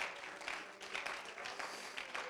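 An audience claps their hands to the Lord at a worship service, dense overlapping hand claps forming a continuous bright wash with no single beat standing out, holding an even level throughout without talk.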